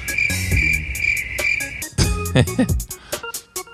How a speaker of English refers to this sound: And hit the crickets, bruv.